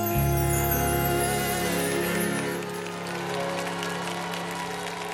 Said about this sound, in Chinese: 好，大家现在听到的这个掌声里啊，肯定有我的声音。当时我跟我对象，我们俩在现场，还听到人说，到时候这个声音可以收集在 EP 里面，可以去买，也可以在网上下载。